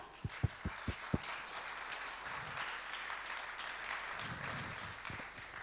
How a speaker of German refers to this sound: Wir freuen uns, dass ihr da seid. Geben wir Ihnen mal einen großen Applaus.